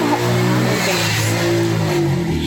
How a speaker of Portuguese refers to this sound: Olha a moto aí mostrando apoio a, Simone Biles.